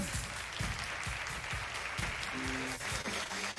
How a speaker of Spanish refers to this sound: Ah, entregamos el diploma. Fuerte aplauso para Pilar.